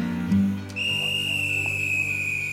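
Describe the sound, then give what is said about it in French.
A station master's whistle on a railway platform sounds one long, steady, shrill blast that holds for about two seconds over a low, humming background rumble, with no voices. “Sur le quai, en entendant le sifflet du chef de gare, Léonard baisse la tête”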